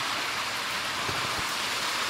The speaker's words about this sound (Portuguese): essa chuva tá me arrilhando, vai sair um barulhão no áudio